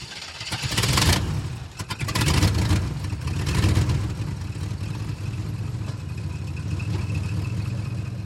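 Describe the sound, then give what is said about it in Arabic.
A truck engine turns over and revs in a couple of loud surges, then settles into a steady low rumble as the truck pulls away carrying a man in a hat. No one speaks. “غادرت الشاحنة وهي تحمل الرجل ذا القبعة”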